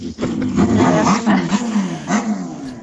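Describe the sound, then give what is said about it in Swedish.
A motorcycle outside the window growls loudly and steadily for a few seconds, its pitch rising and dipping as it revs, with no voices over it. “Vem är det som kör motorcykel?”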